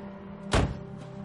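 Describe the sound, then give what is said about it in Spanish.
A car door shuts once with a solid, muffled thud on a street as someone gets out of the car, standing out briefly above a steady low background hum. “En la calle, Frank baja del coche.”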